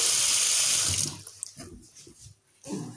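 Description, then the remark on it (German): Water streams loudly into a glass over syrup as a drink is made, for about a second, then tapers off with a few soft knocks and trickles before a brief second splash of pouring near the end. “Okay, und jetzt noch Wasser, oh mein Gott, wie das schon aussieht.”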